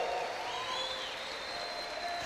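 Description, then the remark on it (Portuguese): A church audience applauds to give glory to God in a steady, dense wash of clapping that holds at an even level throughout, with faint high whistles or cheers drifting above it. “Se alguém está recebendo, dá um aplauso, dá um glória a Deus, faça um barulho aí.”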